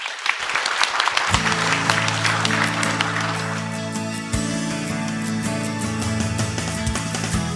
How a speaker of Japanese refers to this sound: 皆様今一度大きな拍手をお願いいたします